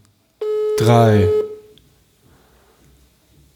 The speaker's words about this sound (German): Und wahrscheinlich geht der Arzt wieder nicht dran. Also auch ein bisschen albern, oder? Okay, ich lass noch dreimal klingeln.